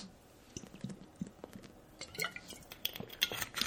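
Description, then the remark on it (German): Quiet sounds of someone taking a sip of water: small liquid slurps and swallows, with a faint clink of a glass, no talking. “apropos Trockenheit, ich muss hier erstmal einen Schluck Wasser trinken.”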